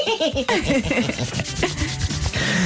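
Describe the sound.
Continuous scratchy friction of hands being rubbed briskly together for a few seconds, imitating a fly rubbing its legs together, a dry swishing texture with faint voiced murmurs underneath.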